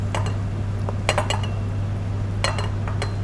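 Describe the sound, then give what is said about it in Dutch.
Rice being spooned into a bowl: a few short bursts of spoon scraping and clinking against dishware, grouped in quick clusters, over a steady low hum with no one talking. “Ik ga nu ehm, rijst in de kom doen.”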